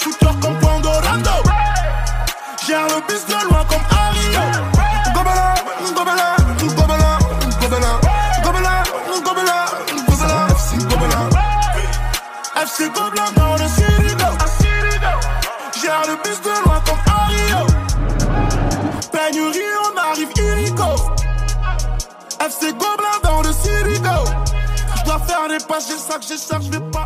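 A rap track from a 2021 mixtape plays loud and continuous, with deep pulsing bass that drops out briefly every few seconds, dense layered beats, and a melodic vocal line running over the top.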